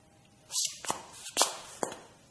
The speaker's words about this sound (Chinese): 他就听到高跟鞋走路的声音，哒哒哒哒的，一步一步来到卫生间门口就站住了。